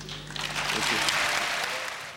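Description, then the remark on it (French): Steady audience applause at the Cannes Film Festival for the film Crash fills the whole stretch, a dense wash of many hands clapping at an even, sustained level, with a faint murmur of voices and some stirring in the hall underneath. “on entend les applaudissements, on entend aussi quelques remous dans la salle parce que ce qui est sûr, c'est que Crash avait suscité une énorme controverse.”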